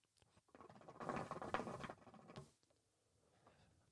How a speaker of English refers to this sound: I know you guys hear the shishas rumbling in the background.